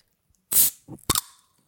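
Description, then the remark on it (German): A bottle of Fever-Tree tonic being opened: a sharp fizzing hiss of released gas, then a second shorter pop-and-hiss with a faint ringing tail, alone without talk. “Ich mache da jetzt einmal auf.”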